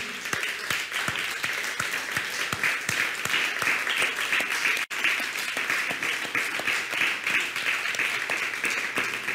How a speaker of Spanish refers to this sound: Vamos a dar un fuerte aplauso a todos los que nos visitan, a todos los que estamos aquí y a todas la, ¿cómo se llama? las naciones. Un fuerte aplauso.